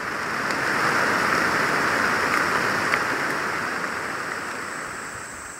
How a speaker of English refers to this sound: Yeah, I mean this kind of rain is it's like a godsend because most of the time I spend doing field work is sweating. So when the rain comes in, it's nice and windy and cool, and yeah, it's like music to my ears.